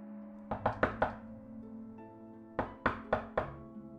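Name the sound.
knocking on a door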